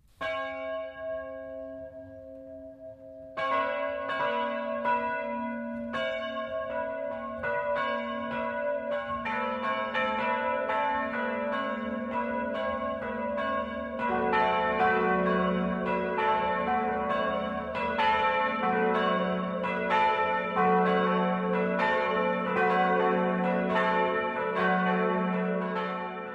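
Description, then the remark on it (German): Church bells in the small village of Ebrach, Upper Bavaria, Germany, ring the 12 o'clock midday chime: one bell tolls alone at first, then more bells join in a dense, overlapping peal that swells further midway and keeps ringing steadily, with no voices. “Das Mittagsläuten kommt heute aus Ebrach in Oberbayern.”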